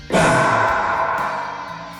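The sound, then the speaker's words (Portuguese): A voice imitates a big, echoing 1980s-style snare drum hit with reverb: a sharp, breathy burst of noise that slowly fades out over about two seconds, heard alone and fairly loud. “É o som da bateria quando o cara bate na caixa e você escuta o”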